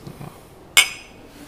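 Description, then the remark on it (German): A single bright clink of glasses touching in a toast, fairly loud, with a short ringing tail that fades quickly against an otherwise quiet background. “Prost übrigens.”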